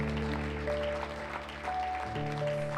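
A church audience applauds steadily in praise of Christ, a dense crackling wash of clapping mixed with sustained, droning keyboard chords that shift pitch partway through, with no voices.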